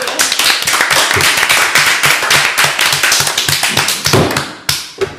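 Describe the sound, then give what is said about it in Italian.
A round of applause from a small group welcoming a newly arrived person, dense irregular clapping that stays steady and fairly loud for about five seconds before thinning out at the end. “un applauso.”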